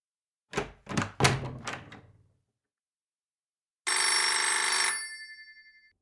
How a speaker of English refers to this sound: The telephone's ringing!